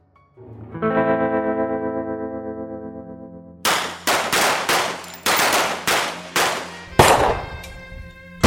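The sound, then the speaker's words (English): After a sustained droning tone, a rapid string of loud shotgun blasts rings out, roughly eight booming shots in quick, uneven succession, harsh. “Well, I'm running out of ammo. I only got a few more shells.”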